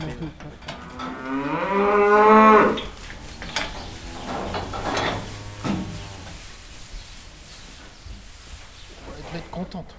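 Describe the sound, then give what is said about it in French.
Cows moo inside a barn: one loud, drawn-out low, followed by a second moo a few seconds later, then quieter shuffling and background barn noise. “si sur le plan euh, température, il n'y a pas une vache qui ne fait pas de symptômes mais qui est en train de.”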